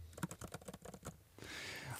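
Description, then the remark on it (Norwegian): Rapid, light clicking of keys on a thin laptop keyboard, a quick irregular burst of taps that gives way to a soft rushing noise in the last half second. “Ja, jeg tror de avskaffa det, ja, men sånn høres de disse her ut for meg, da.”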